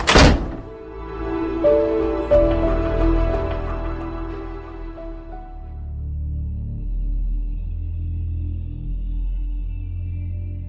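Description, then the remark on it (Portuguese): A heavy library door slams shut with a single loud thud, its resonant ring fading slowly into a low, rumbling ambience with no voices. “todos adentraram a pesada porta da biblioteca.”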